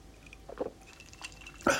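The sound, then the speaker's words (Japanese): A few quiet wet slurping sounds of someone sipping leftover bottled tea from the day before, poured into a cup with ice, followed by a louder gulp or swallow at the end. No one speaks. “あこれ今あの別にお酒じゃないですあの今日車乗るんでねお酒飲めないんで今麦茶に昨日のあの麦茶じゃないや昨日のペットボトルのお茶がね少し残ってたんで、まあ、あの一晩経ってるんでね口近づけじゃちょっとあのばい菌ばい菌細菌が増えてるっていうんでコップに移して氷を入れてね、えー、飲んでます”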